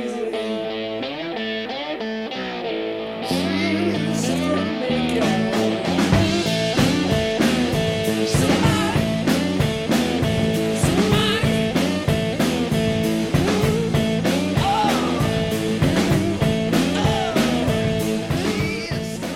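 A rock song plays loud and close, a brief guitar-led opening giving way to the full band with steady, driving drum hits and thick instrumentation throughout. No one speaks.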